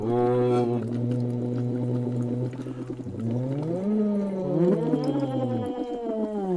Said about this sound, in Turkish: Ve bunu bu da yine bir boru ve su şişesi. Fokurdatıyor.